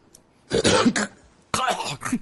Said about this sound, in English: That's when he coughed up the fur ball at the end of the broadcast.